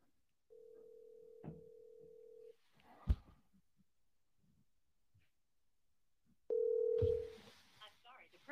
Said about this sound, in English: Nobody's picking up. Nobody's picking up. What? Come on. Somebody pick up the phone.